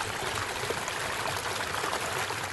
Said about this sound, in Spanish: el sonido del agua, que es la música de la naturaleza, se puede perder muchas vidas en el equilibrio de la misma vida. Que nunca el agua deje de sonar, porque su silencio sería sequía y ausencia de biodiversidad.